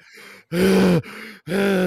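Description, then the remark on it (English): A voice imitates a comedian's exaggerated, winded breathing: two loud, rasping gasps, each followed by a quieter wheezing exhale, in an exaggerated panting rhythm. “like, like exaggerating his breathing.”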